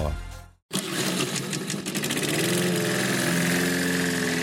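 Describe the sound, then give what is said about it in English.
A lawn mower engine sputters briefly, cuts out for a moment, then catches and settles into a loud, steady drone. “Mowers, start your engines.”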